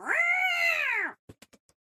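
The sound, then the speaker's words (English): A cat lets out one loud, drawn-out yowl that bends downward as it ends as it is thrown out of a house, followed by a few quick, scattered thumps. No voices. “That's the sound you make when you throw a cat.”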